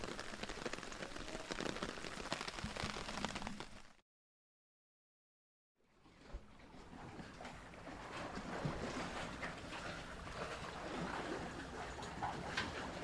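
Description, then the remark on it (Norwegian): Steady rain patters densely on a hard surface, cuts to silence for about two seconds, then the downpour resumes just as thick and constant. There are no voices. “Og da var eh, Da var regnet endelig over.”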